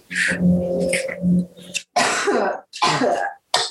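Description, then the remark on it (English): A person clears their throat with a low rumbling hum, then lets out three sharp, harsh coughs in quick succession, fairly loud, with no talking. “Oh, sorry, I'm coughing.”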